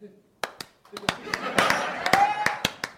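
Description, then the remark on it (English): Several sharp hand claps ring out at an uneven pace, about ten in three seconds, while voices chatter and laugh underneath. “Do we clap that or do they clap that? We clap that.”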